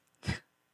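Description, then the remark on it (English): A single quick sneeze bursts out, a short sharp blast of breathy noise that fades within a fraction of a second, with near silence around it. “Bless you.”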